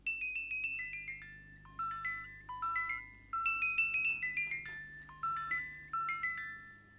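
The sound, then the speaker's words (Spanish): A simple wind-up music box, a metal comb whose teeth are set vibrating by pins on a turning disc, plinks out a bright, tinkling melody, each plucked metal note ringing and fading quickly in a steady, lilting rhythm, clear with no voices. “Esta que sonó es una cajita de música sencilla.”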